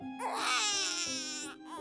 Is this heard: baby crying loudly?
yes